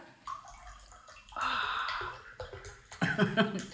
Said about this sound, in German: Ich, schenke mir ein Glas Wasser ein. Wahrscheinlich hört man das jetzt.